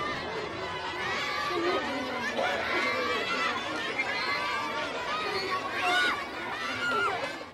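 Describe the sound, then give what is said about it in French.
A dense crowd of village children surrounding a car, chattering and shouting at once, their high-pitched voices overlapping into a shrill, continuous clamor. “Les enfants entourant la voiture l'empêchent d'avancer. Très vite, leurs cris deviennent stridents.”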